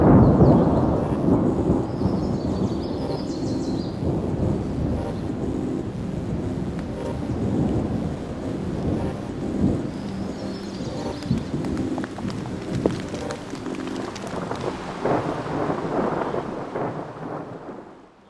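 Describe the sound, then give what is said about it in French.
A long, deep rumble of thunder rolls on continuously, broad and booming at first, then slowly fading away as the storm grumbles in the distance, with no voices. “Un tel sacrifice s'expliquait par un grondement lointain qui se faisait entendre à intervalles réguliers et annonçait l'arrivée d'un phénomène des plus naturels, mais face auquel l'ex-policier restait détamisé, l'orage.”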